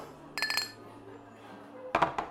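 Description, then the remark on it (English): Glasses clink together in a toast, a bright ringing cluster of taps followed by a second round a moment later, over a low, steady background hum. “Well, that deserves a toast.”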